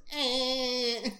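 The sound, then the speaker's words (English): A single loud, nasal buzzing drone made by a person's voice, held at a steady pitch for about a second before cutting off, an irritating imitation of a buzz like the joke in Dumb and Dumber. “Um, like just super annoying buzzing sound.”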